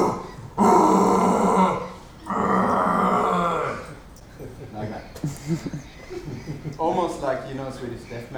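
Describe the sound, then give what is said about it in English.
A person imitates a red deer stag's mating-season roar with two long, loud, guttural bellows, followed by laughter and talking. “Do you know the mighty call of the red deer male? Do you know what it sounds like?”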